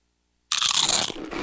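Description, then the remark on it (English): A single loud, crisp crunch bursts in after a half-second of silence, followed by a brief crackling as the first nacho chip, topped with cheese and sour cream on a layer of beans, breaks apart. “It's the crisp crunch of that first nacho chip.”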